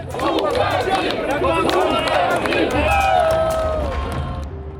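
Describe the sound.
Angry state-employed workers at the tractor factory in Minsk, Belarus, chant rhythmically 'Get out, get out' after President Lukashenko and his helicopter as he flies off: many raised voices shouting together in a loud, dense and continuous mass of sound, with a few individual cries standing out above the din.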